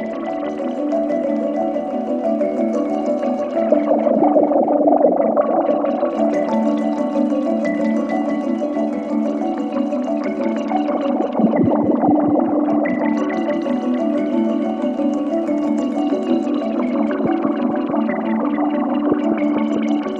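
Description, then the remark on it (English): A gentle, kalimba- or xylophone-like melodic pattern played through a Parallax modular synth filter that slowly opens and closes, shifting its brightness, modulated by After Later Audio modulation sources and a DivKid Ochd. It stays steady and moderately loud throughout, with no voices. “xylophone or kalimba or something being uh, being played really beautifully, and I'm running it into Parallax”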